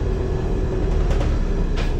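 Steady low rumble inside a moving bus in the early morning, with continuous engine and road drone and a few faint rattles and clicks rising briefly above it, no voices.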